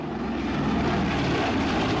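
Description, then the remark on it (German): The heavy piston engines of a B-29 bomber roar steadily at takeoff power as American pilot Robert Lewis takes off at 2:45 a.m. from the Pacific island of Tinian, bound for Hiroshima: a loud, dense low rumble with a throbbing propeller drone and no voices. “Auf der Pazifikinsel Tinian startet der amerikanische Bomberpilot Robert Lewis seine B-29 mit Ziel Hiroshima.”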